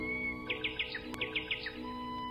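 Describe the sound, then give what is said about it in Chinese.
Two small birds flying in, chirping in two quick bursts of four or five bright, high notes each, with a short pause between them over a steady low background hum. “两只小鸟飞来了，它们把长鹿角当成了一棵树。”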